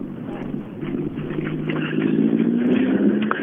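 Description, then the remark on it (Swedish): Steady low rumble of car engines with a rising engine tone as a vehicle passes, over continuous outdoor traffic noise, as cars drive in and out of a rally stage with about 150 cars out there. “Folk är på väg in och ut från sträckan. För det är, jag lovar, det var 150 bilar räknar jag till här ute.”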